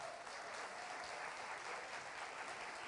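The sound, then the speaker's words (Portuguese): Steady audience applause for the group about to be baptized next Sunday fills the whole stretch, a dense, even wash of many hands clapping at once with no voices rising above it. “E eu quero pedir que vocês que estão aí sentados, que já passaram por essa experiência ou não, que dê um aplauso para essa galera que está aqui.”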